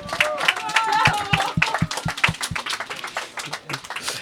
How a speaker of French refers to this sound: On les applaudit bien fort.